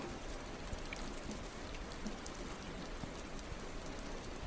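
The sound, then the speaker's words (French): Steady rain falls continuously, a dense hiss of drops pattering on a surface with no pauses, even in loudness throughout, with no voices. “Et moi, je peux vous dire, et tous les sans-abri vous le diront, c'est la pluie.”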